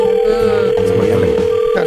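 A telephone rings during a call, a steady tone holding for about two seconds, loud and continuous, with faint murmuring voices underneath.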